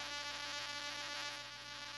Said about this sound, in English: Uh, well, the one thing I'll say is I'm hearing you're buzzing,